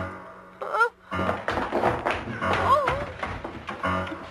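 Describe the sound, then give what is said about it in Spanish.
A rapid, irregular series of heavy thuds and bumps as a crying woman, being chased through a house, falls down a flight of stairs, with a few brief vocal cries mixed in. “Pues más que bajar, se escucha que se caen las escaleras.”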